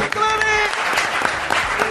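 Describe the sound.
An audience claps steadily in a dense, continuous burst of applause, loud and close, with faint voices mixed in beneath the clapping.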